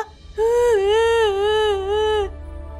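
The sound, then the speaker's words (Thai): A voice imitates a lost duckling crying for its mother: one drawn-out, whimpering wail lasting about two seconds, its high pitch wobbling up and down, fairly loud, with no talking around it. “เพราะลูกเป็ดเอาแต่ร้องไห้ กว่าแม่กวางจะรู้เรื่อง ก็ต้องปอบให้ลูกเป็ดนั้นหยุดร้องไห้ก่อน”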